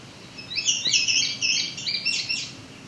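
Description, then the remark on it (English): A red-eyed vireo sings a busy run of short, high slurred whistled phrases, one after another with barely a break, clear and fairly loud with no talking. “So our vireo is non-stop as usual.”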